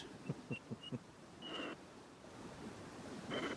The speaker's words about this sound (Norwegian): Det blæs når jeg kjører.